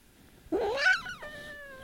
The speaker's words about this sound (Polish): No więc widzicie, proszę Państwa, widzicie Państwa, kot wyraźnie powiedział o co o co w tym wszystkim chodzi, proszę Państwa. Kot mądrze gada. No kot jest mądry.